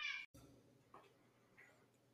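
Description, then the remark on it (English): A cat, Carmen, meows once loudly in a bright drawn-out cry while roaming in a recording studio, followed after a short gap by two fainter, softer meows over a low background hum. “Now, if you were wondering there what the meowing was, that would have been Carmen, our cat.”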